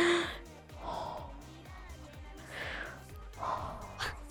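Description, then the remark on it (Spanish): A voice imitates heavy, raspy breathing: several slow, drawn-out breaths with audible inhales and exhales, alone without speech. “Así que, brother, también, si ustedes luego les han hablado así y luego nada más escucha una respiración así,”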